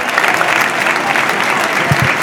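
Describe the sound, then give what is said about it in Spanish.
The crowd at Castalia stadium in Castellón stands and applauds in a sustained ovation for Traoré as he is substituted off, dense steady clapping at a loud, even level, with a few low thumps near the end. “ahora va a cambiar la ovación, la ovación para el chaval.”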